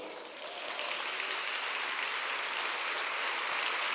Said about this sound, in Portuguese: Se você recebe, fica de pé no seu lugar e aplauda o Senhor.